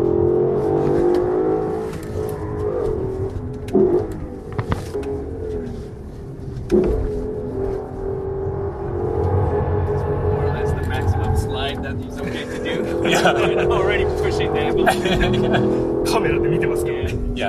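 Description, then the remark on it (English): A loud Lexus car engine revs hard and continuously, its pitch surging and falling as the car drifts, with bursts of tire and road noise and occasional voices underneath, recorded on a phone by a passenger. “Some serious drifting.”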